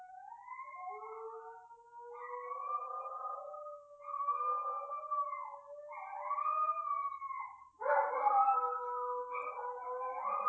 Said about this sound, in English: with my dogs howling in the background